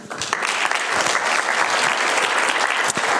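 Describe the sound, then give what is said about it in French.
Steady audience applause for two speakers introduced at an evening talk fills the whole stretch, a dense, even wash of many hands clapping at once, loud, with no talking over it. “On peut les applaudir.”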